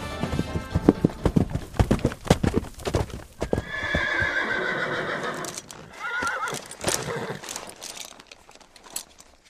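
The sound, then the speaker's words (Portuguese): Horses trot with a quick run of sharp hoof clip-clops, then one lets out a long, loud, wavering whinny before scattered hoofbeats return. No one speaks. “todo mundo se ajeita assim, as risadas diminuem e vocês vêm chegando a cavalo ali.”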